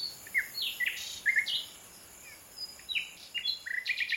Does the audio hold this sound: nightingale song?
yes